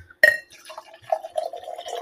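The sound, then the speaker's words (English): A sharp glassy clink rings out, followed by a steady, gurgling stream of sherry being poured into a glass for a toast, moderately loud, with no talking. “So we're going to toast with our sherry. I'm going to go and get mine in my glass.”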